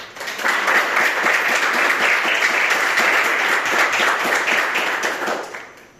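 crowd, audience applauding

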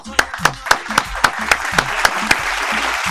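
crowd, applause

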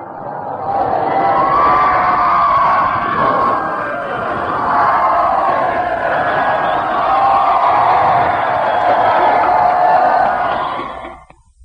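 crowd, crowd cheering

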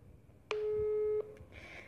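signal or alarm, phone call ringback tone

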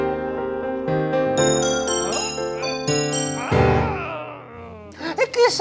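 household object, doorbell ringing

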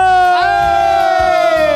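crowd, crowd applause and cheering

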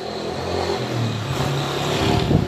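vehicle, motorcycle passing by

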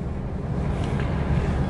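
vehicle, car interior noise

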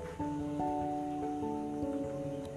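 nature, rain falling

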